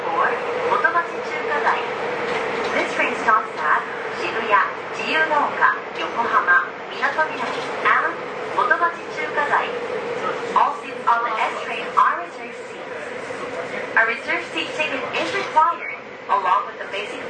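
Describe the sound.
Steady interior rumble and hum of a moving Seibu 40000 series S-Train running between Hanno and Shibuya, heard from onboard, with a voice announcement speaking over it in short phrases throughout.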